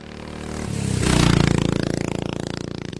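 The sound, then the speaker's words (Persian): A motorcycle engine revs up and pulls away at midnight, its rumble swelling over the first second and then settling into a steady, pulsing drone as it rides off toward a house in a neighbourhood near Rail Rahan, with a scrape near the start. “شهرام سوار بر موتور به خانه خواهرش که محله نشین اطراف ریل راهان بود ره سپار شد”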